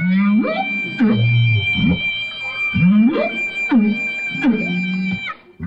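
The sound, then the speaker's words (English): Humpback whale song mingles with a live clarinet broadcast through an underwater speaker and picked up by an underwater microphone, the whale's rising, swooping moans repeating every second or so against the clarinet's steady, reedy held notes, both loud throughout. “And you hear this duet from down there, live clarinet and whale.”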